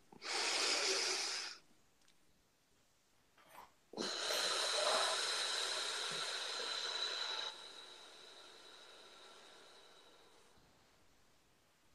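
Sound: a deep breath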